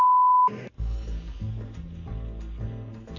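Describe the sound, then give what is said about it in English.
A single steady, high-pitched censor bleep over a word in a clip of Donald Trump speaking in Lima, Ohio, sounds for about half a second, then cuts off into low, sustained musical tones with no talking. “All right, listen carefully to this clip of Donald Trump speaking yesterday in Lima, Ohio, and tell us what the bleep.”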